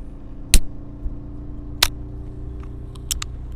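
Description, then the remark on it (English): A drink can being popped open on a road trip: two sharp metallic cracks a second apart, then a few faint clicks, over a steady low rumbling hum with no talking. “Let me let me pop this.”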